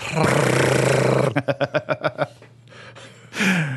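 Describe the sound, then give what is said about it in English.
A voice imitates a baseball card clipped with a clothespin to a bicycle and flapping in its spokes: a breathy rush followed by a quick, rhythmic run of about eight sputtering pulses, then a short, loud breathy burst at the end. “You, you might, you might even be a baseball card uh, that is attached, attached to the bike to the that spoke. makes it sound like this.”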